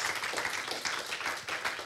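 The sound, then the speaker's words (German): A crowd applauds God with dense, steady clapping that fills the whole stretch, a continuous crackle of many hands at an even, moderate level, with no voices standing out. “Hey, Gott verdient deinen Applaus.”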